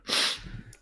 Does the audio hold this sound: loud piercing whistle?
no